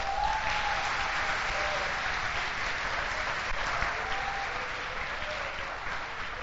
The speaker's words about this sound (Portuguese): Vamos dar uma salva de palmas para eles?